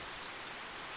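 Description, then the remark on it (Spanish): Heavy, torrential rain pours down in a jungle in a continuous, dense hiss, steady and unbroken throughout, fairly soft in level, with no voices present. “Y no sé si se oiga o no, pero si se oye ese sonido de fondo, es una lluvia torrencial que me ha tocado presenciar”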